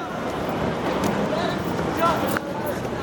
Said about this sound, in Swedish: Folkmassan vänder i, i panik på klacken och springer därifrån.